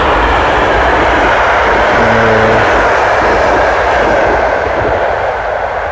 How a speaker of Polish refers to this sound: Tu sobie też spróbujemy troszeczkę pociągi pooglądać.